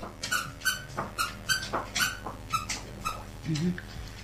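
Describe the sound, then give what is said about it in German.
A dog chews a squeaky toy elk, making a steady series of eight or so high, rubbery squeaks about every half second, fairly loud, with no talking. “Die Pebbles hat wieder ihren Quietscherelch gefunden, den sie auch letzte Woche schon hatte.”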